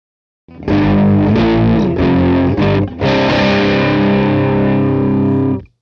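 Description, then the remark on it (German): A driven electric guitar plays straight through the amp alone with no effect pedal, a few overdriven chords and bends ringing loud before sustaining into a held chord that fades out. “Das ist jetzt wieder nur der, der Amp-Sound hier.”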